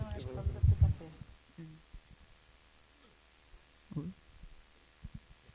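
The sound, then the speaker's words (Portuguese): A low, throbbing microphone feedback hum during a talk at a PUC event, with booming bursts, loudest near the start and again briefly later, plus a faint steady drone underneath and a little muffled voice early on. “Acho dando uma microfonia aqui, que eu não sei.”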